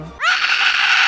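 A single loud, harsh angry scream bursts in after a brief low murmur and holds steady for about a second, raspy.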